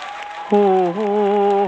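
Audience applause welcoming a singer who is about to sing, a dense, steady patter of clapping, soon joined by a loud, sustained musical tone that holds one pitch, then steps to another while the clapping continues underneath.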